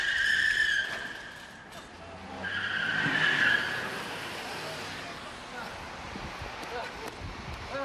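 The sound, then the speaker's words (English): Car tires screech loudly in two long, high-pitched skids, the first right at the start and a second shortly after, as Goldust's car hits Roddy Piper during a WrestleMania match, followed by a rumbling, noisy background with indistinct voices. “Roddy Piper was hit by a car.”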